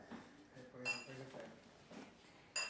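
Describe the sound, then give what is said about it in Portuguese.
Two bright glass clinks ring out about a second and a half apart, like glasses touched together in a toast, with voices murmuring underneath and between them. “Brindar, vamos brindar.”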